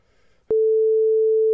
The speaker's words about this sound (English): I was gonna say name and then beep it out, but I'll do the same.